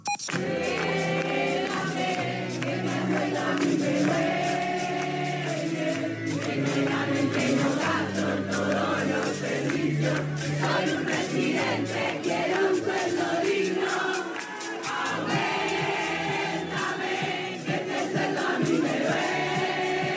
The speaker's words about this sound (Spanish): Lo que pasó fue que con mucha creatividad y con grandes marchas y con canciones como esta, mirá, escuchá, los residentes consiguieron lo que buscaban.